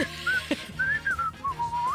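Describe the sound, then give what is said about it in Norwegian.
Someone whistles a short, wandering melody, the pure tone sliding between notes in several phrases with brief breaths between them. “Men du må plystre, da.”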